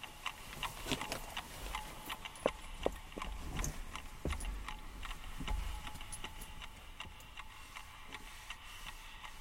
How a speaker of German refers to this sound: Aber ich höre sie ticken, ganz deutlich, ganz furchtbar deutlich höre ich den Wecker ticken. Das nervt, ich kann nicht einschlafen.